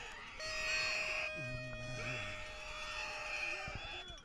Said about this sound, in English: Sounds like a horror movie behind me, all this screaming.